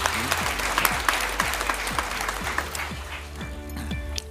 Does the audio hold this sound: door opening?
no